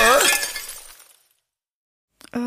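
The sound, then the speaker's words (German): A window pane shatters in one loud, bright crash, its ringing shards tinkling away over about a second. After a short silence, a person starts speaking. “warum hast du das Fenster nicht aufgemacht?”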